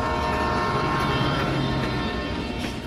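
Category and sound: vehicle, moving train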